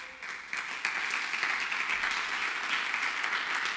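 A crowd applauds steadily, many hands clapping in a dense, sustained patter that holds at an even, moderate loudness throughout, with no voices standing out.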